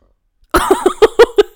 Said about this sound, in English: Stop burping! it's not burping. It's my glaucoma.